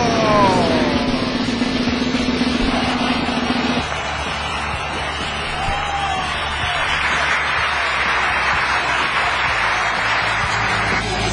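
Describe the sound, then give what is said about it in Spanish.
Loud, sustained applause runs the whole length, a dense and steady clatter of many hands, with a few rising whistles or whoops mixed in near the start. “Fuerte los aplausos.”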